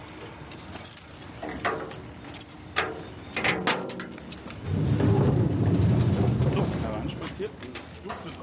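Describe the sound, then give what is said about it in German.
Keys jangle and clink in a lock for several seconds, followed by the large sliding door of the locomotive shed at the historic railway depot in Hanau rumbling open with a low, sustained scraping roar that slowly fades. “schließt die große Schiebetür zum Lokschuppen in Hanau auf.”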